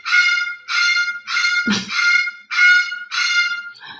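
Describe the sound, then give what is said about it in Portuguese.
A parrot squawks loudly, letting out six harsh, rasping calls in a steady rhythm with a brief thump partway through and no talking. “Tá atrapalhando o papagaio ou não?”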